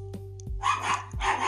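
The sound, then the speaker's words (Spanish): Small pet dogs bark in a quick burst, a few sharp yaps overlapping, loud against a steady low hum in the background. “Entonces, estos son mis, mis peligrosos perritos ladrando, pero pues también forman parte de el ambiente.”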